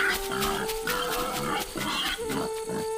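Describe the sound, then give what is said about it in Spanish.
White-lipped peccaries grunt in a forest in a dense, overlapping chorus, with rough, steady calls and some higher squealing tones running without pause, fairly loud, with no voices. “Y el chancho tropero, con su fuerza y espíritu aventurero, mantienen el orden en el bosque.”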